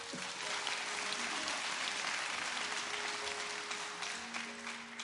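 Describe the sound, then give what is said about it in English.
Sustained applause from a large group at a church service, given for the visitors: a dense, steady clatter of many hands clapping at once for about five seconds, with a faint tonal hum underneath. “Let's give a hand clap to our visitors.”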